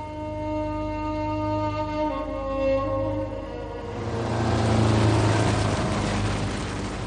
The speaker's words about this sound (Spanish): El vehículo cruza en línea recta el anaranjado mar de arena a toda velocidad dejando rastro a su paso.